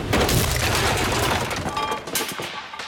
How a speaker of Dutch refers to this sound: Pap, je bent zo tegen de kade aangevaren.